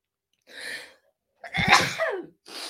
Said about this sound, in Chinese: 啊，今天怎么鼻子有一点想要疯狂的打喷嚏的感觉呢